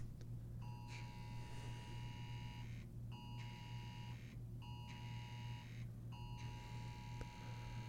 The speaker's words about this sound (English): So I don't know if you can hear that in the background but it's almost like some sort of uh, oh, it was a it was a presidential alert. It's a test of the National Wireless Emergency Alert System.